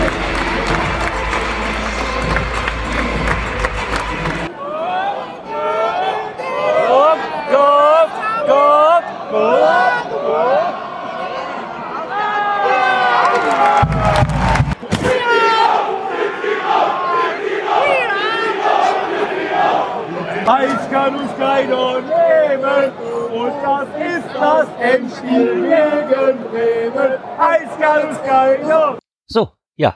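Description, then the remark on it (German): Football crowd at the Tivoli stadium, with not many spectators present, chanting and cheering in unison, many voices rising and falling in a loud, steady sung rhythm, opening with a brief burst of broad roaring noise and cutting off abruptly at the end. “Dieses war mein Tivoli-Besuch. Klein, aber fein. Es waren nicht allzu viele Zuschauer da.”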